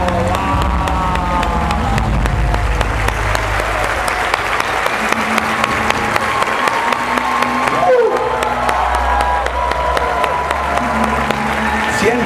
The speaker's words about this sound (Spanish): Le damos un fuerte aplauso, líder extraordinario.